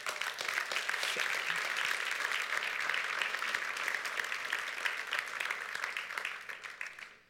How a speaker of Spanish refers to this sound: Dar un aplauso a Cristo.